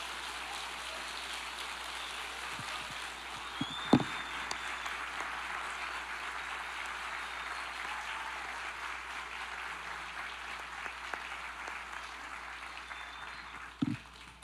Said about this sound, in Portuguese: Eu gostaria de honrar nessa manhã nossa equipe do Mãos. Eu gostaria que você aplaudisse ao Senhor pela vida deles.